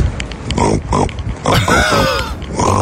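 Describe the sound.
A person imitates a pig in a voicemail message left for an ex-partner, making a rapid series of loud snorting grunts and nasal oinks, with a squealing, wavering cry in the middle.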